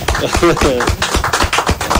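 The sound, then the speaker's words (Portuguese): A burst of crowd applause for the teachers, many hands clapping in a dense, steady patter, with voices briefly audible among the claps. “Primeiro, vou, vou, vou pedir uma salva de palmas aqui para os professores, ó.”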